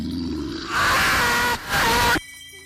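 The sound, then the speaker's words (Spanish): The Sisimite, a beast-man creature of Honduran legend, lets out two loud, harsh howling screams in quick succession, raw, with a low rumble beforehand and a brief gap between the cries. “Camina en dos patas pero corre en cuatro. Da largas zancadas aúlla y grita.”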